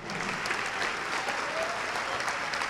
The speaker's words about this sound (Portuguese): Vamos aplaudir ao nome do Senhor Jesus. Vem para cá.